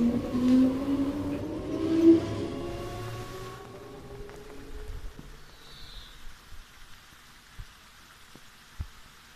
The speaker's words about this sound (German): Das Bächlein plätschert, die Bäume wiegen sich sanft im Wind. Hier in der Waldpension Buchholzmühle kann man sich vollends dem Müßiggang hingeben.